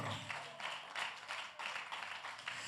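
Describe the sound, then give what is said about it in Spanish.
An audience applauds God during a sermon, many hands clapping together in a steady, pulsing rhythm, fairly quiet, with no voices over it. “¿Cuántos le dan un aplauso al Eterno?”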